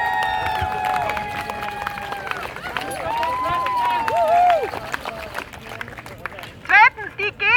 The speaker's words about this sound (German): Erstens, danke allen, die hier mitgemacht haben. Ihr seid super, super leibend. Ein Applaus für euch.